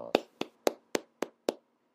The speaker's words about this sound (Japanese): え第5回でお祝いを入れなきゃいけなかったのに、え忘れてたので、え一応拍手しておきます。